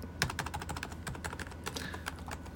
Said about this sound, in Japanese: この、あの、パソコンのね、この音。今僕の、えー、パソコンのキーボードを叩いてるんですけど